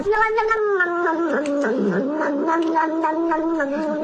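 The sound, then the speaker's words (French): A cat drinking its milk in a viral TikTok video meows loudly and continuously in drawn-out, wavering yowls, clear, with the pitch sliding up and down through several stretched cries. “Le chat, là Oui, oui, le chat qui boit son lait, et tout ce que les TikTokers ont rajouté par-dessus.”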